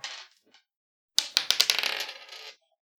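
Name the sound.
dice being rolled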